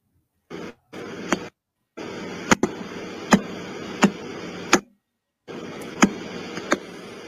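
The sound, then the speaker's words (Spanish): The radio signal of pulsar B0329+54, which spins 1.4 times per second, converted to a digital signal and rendered as sound: loud, steady static hiss punctuated by sharp, evenly spaced clicks about every 0.7 seconds, cutting out briefly a few times, with no voices. “pueden buscar sonidos de los pulsares y van a escuchar cómo es que nosotros, bueno, en esas ondas de radio que, que llegan a nosotros, luego lo pasamos a una señal digital y de eso hacemos un sonido y ese sonido suena así.”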